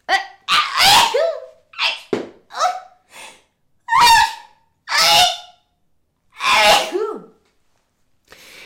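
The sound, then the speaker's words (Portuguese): A run of sharp, explosive sneezes in quick succession, about half a dozen loud bursts with brief gaps, mixed with short dog-like yelps and barks; no talking. “Ah, ela espirrou, veio-se. Espirrei.”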